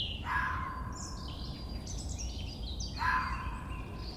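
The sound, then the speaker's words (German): A red fox calls twice in front of its den in a forest in the Oberpfalz, in the evening after dark: short hoarse cries spaced a few seconds apart, over a steady low rumble of outdoor background with no one speaking. “Und da ist er schon, der Fuchs.”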